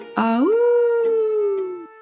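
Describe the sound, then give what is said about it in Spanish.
A single long, wolf-like werewolf howl under a full moon rises quickly in pitch and holds a steady, mournful tone for nearly two seconds before fading, loud with no talking. “Debajo de la luna llena, el hombre lobo.”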